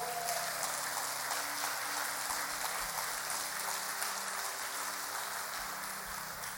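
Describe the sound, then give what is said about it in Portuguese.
A large audience claps together for the Lord in steady, dense applause that holds evenly for several seconds, a continuous wash of many hands with no voices over it. “Então vamos aplaudir ao Senhor.”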